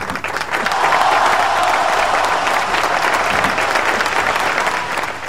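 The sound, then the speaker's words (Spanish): A crowd applauds steadily for about five seconds, a dense, even wash of clapping that holds its loudness throughout and eases off slightly at the very end. “Vamos con el aplauso.”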